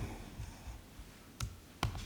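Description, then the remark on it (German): Two crisp, fairly quiet computer mouse clicks made while clicking in a software event editor, spaced about half a second apart, with a faint extra tick right after the second, over a low hum of background noise. “Und wenn ich jetzt hier mal so reinklicke, dann das ist automatisch, der Event Editor verbindet sich erstmal automatisch mit dem äh, sogenannten Mutterobjekt.”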